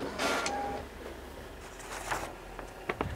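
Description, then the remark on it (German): An A3 printer runs on its own, printing slides on paper, with mechanical whirring, a steady motor tone and clicking paper-feed sounds, then a few sharp clacks near the end as a sheet moves through. “Aber ich drucke mir jetzt einfach meine Folien auf Papier aus und dann halte ich sie einfach immer so in die Kamera. Mit dem A3-Drucker?”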